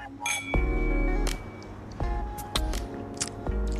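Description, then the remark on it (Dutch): Whisky glasses clink together several times in quick succession in a toast, each bright chime ringing out and fading, with faint background murmur between the touches. “Proost!”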